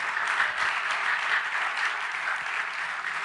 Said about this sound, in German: Leute, lasst uns den Herrn einmal einen kräftigen Applaus geben. Das ist wunderbar. Halleluja.